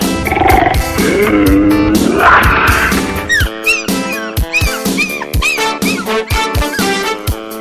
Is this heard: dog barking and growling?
yes